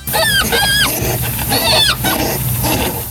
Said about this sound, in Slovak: Obyvatelia sa stiažujú, že sa ješkovia v lese množia až príliš nahlas a že rušia nočný kľud. Ješkovia v najlepšom znejú asi takto.